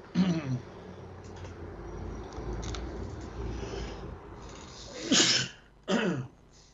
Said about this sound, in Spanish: bueno, refríos, estornudos, toses, pido disculpas.